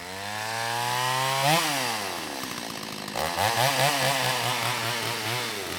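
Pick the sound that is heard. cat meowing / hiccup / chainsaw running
chainsaw running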